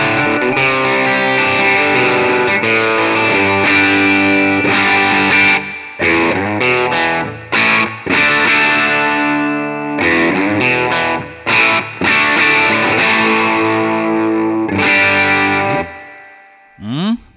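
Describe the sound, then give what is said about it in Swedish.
Electric guitar with overdrive through a P90 bridge pickup plays loud, thick distorted chords that ring out and are broken by short choppy pauses, with a final chord trailing off at the end. “Men, mm vi ska slänga på lite drive här så ska vi få höra, för då tycker jag de kommer till liv lite grann.”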